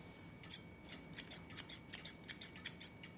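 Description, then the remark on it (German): Rusty scissors snip about eight times in a steady, quick rhythm, each cut a crisp, scratchy metallic click, fairly quiet, with no one talking. “Auf dem Kühlschrank entdeckte ich in einem großen, ausgewaschenen Joghurtbecher zwischen Kochlöffeln und Schneebesen eine rostige Schere.”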